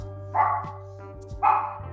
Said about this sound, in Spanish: saluden a, mi perrita.